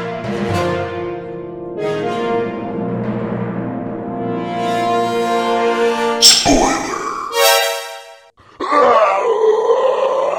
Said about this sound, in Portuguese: Então, a vinheta vem aí, avisa, agora é com spoiler.